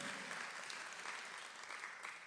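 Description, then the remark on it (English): An audience applauds in praise of God out of gratitude, a steady, dense wash of clapping that carries evenly throughout, sounding like a large crowd, with no one speaking over it. “God's handed, I feel like give him a praise just out of gratitude today.”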